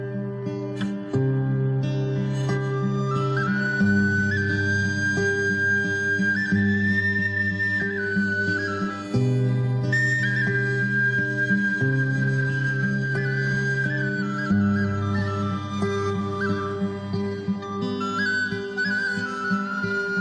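A band plays a song from the soundtrack of the film No One Knows About Persian Cats, with sustained chords under a gliding lead melody, loud and steady throughout, with shifting harmonies every few seconds and no talking over it.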